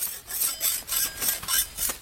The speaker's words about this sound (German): trinkt ein paar Schluck Wasser, wetzt ihr stumpf gewordenes Messer. Dann hackt sie weiter.